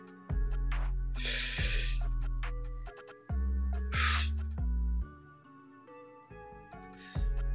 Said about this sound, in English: I know as kindred, we don't need to breathe, but you have to do this with me. Listen to the sound of my breathing.